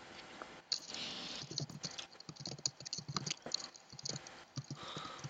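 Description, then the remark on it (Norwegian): Rapid clicking of keys on a computer keyboard as someone types a search online, an irregular stream of crisp taps filling the whole stretch with brief pauses between bursts. “Jeg hører et eh, okay. tastatur.”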